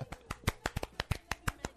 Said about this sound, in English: Nice golf clap. Yeah, Golf clap.